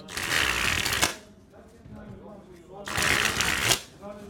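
playing cards being shuffled

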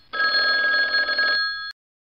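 telephone ringing

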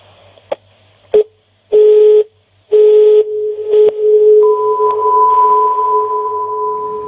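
telephone ringing

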